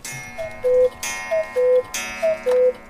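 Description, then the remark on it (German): A Black Forest cuckoo clock calls three times, each a short higher note dropping to a longer lower one, with a sharp mechanical clack before each call. No voices. “Und die Kuckucksuhr gibt's auch noch.”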